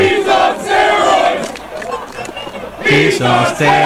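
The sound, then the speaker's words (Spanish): A large crowd of baseball fans of the Cops chants and yells in unison at right fielder Fernando Tatis, a loud rhythmic group shout that swells, dips briefly, then surges again with sharp repeated syllables near the end. “Tenía a los fans de los Cops ahí atrás de él, sacando el jardín derecho, ahí están gritándole,”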